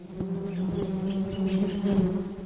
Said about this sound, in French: une abeille se pose près de vous. Restez calme, elle ne vous veut aucun mal.